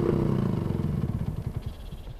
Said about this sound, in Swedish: Till all lycka såg jag en italiensk major anlända på motorcykel.